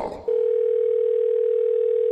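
A steady, loud telephone tone sounds continuously after a brief burst of muffled noise, holding one unbroken pitch like the tone on an outgoing call line, as a call is placed to an electrician.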